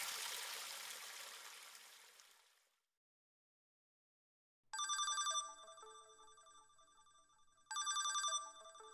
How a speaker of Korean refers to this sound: 그때 돌아선 치수 씨 바지 뒷주머니에서 휴대전화 벨이 울렸다.